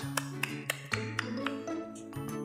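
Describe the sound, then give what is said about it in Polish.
Slow, uneven hand claps, about eight sharp slaps with a flat, wet quality like a fish smacking a table, over a steady low hum with no talking. “Brzmiało jak ryba plaskająca o Albo stół.”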